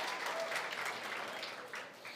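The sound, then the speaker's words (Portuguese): A church audience applauds for Jesus at the preacher's call, with a steady, dense wash of clapping that holds through, dipping slightly near the end, with no voices rising above it. “Quantos podem dar uma salva de palmas para esse Jesus?”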